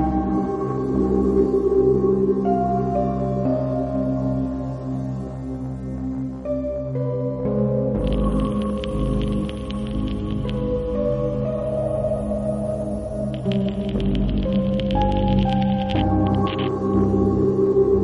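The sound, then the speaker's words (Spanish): The theme tune of the radio program Nueva Dimensión opens with steady, sustained instrumental notes and a full, continuous sound, brightened midway by shimmering high accents; there is no talking. “Primeras notas, primeros compases de esta sintonía que una vez más hacía tiempo que no escuchábamos aquí en Nueva Dimensión”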